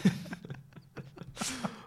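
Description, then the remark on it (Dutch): A person gives a few rough coughs in an irregular sequence, with a bigger harsh burst near the end and no speech around them. “Ga je nou eens zitten te hoesten?”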